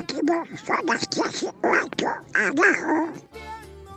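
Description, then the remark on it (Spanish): A person imitates Donald Duck, babbling in a raspy, garbled quacking voice for about three seconds before it cuts to a short, steady tonal sound. “El pato Donald.”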